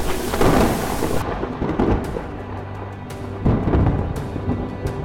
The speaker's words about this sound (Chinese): 突然间，又有一阵大风吹过来，还有闪电和打雷出现。